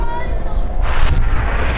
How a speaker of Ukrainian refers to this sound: На вас стріляють